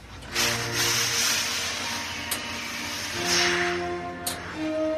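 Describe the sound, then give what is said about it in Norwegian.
A steam iron hisses steadily in broad, breathy bursts as it is pushed at full speed over a white shirt, with faint tonal hum underneath and a couple of brief clicks, in a basement laundry room behind the main stage of a theatre. “Og det han freser i full fart over ei hvit skjorte med dampstrykerne.”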